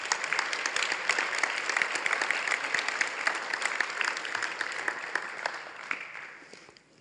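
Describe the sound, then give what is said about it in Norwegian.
A crowd applauds steadily, dense overlapping claps sustained for several seconds before gradually thinning and fading out at the end. “Vi gir han en skikkelig klapp.”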